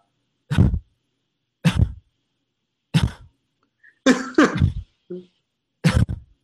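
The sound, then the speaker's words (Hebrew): A person imitates how a man used to give small, stifled coughs and throat clearing, a series of about six short muffled bursts spaced roughly a second apart, fairly loud, with no speech. “שהייתה לו שיעול, איך שהוא היה משתעל זה, כנראה כי הוא לא רצה להפריע, אבל זה פשוט הכי פאקינג הפריע, כי רציתי לשבור לו את הראש, זה שפשוט כל פעם היית שומע כזה דבר כזה.”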